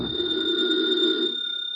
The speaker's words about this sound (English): I was about to contact the chief and tell him so when the telephone rang.